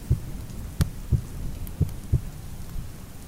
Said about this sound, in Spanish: Era aquel rumor. Lo reconocí al punto. Era el latido del corazón del anciano y aumentó mi cólera, así como el redoble del tambor sobreexcita el valor del soldado.